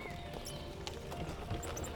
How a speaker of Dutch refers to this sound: Toen hij in de verte een fakkel zag naderen en het geluid van paardenhoeven hoorde, maakte hij een sprongetje. Daar is de koets met mijn kruiden.